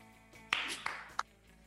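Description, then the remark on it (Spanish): Three sharp hand claps at a slow, slightly uneven pace, each a brief bright smack with a short ringing tail, over a quiet background with no talking. “No, es algo aplaudible.”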